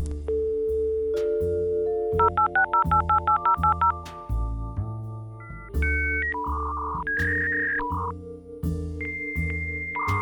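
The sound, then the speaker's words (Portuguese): A dial-up modem dialing, with a rapid string of touch-tone beeps followed by shifting, sustained electronic tones as it connects, all over a steady, pulsing low rhythm. “mas tá ligado aquele barulho do, do Molden antigamente.”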